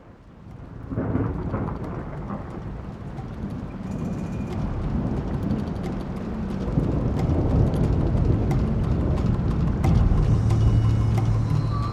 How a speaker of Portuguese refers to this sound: O som da chuva batendo nos pelegos esticados que cobriam a pequena cabana lembravam um tambor tocado por uma ágil mão. A cabana era bem feita, como todas as cabanas órquicas.